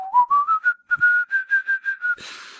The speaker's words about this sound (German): Ich kann noch etwas pfeifen zum Beispiel.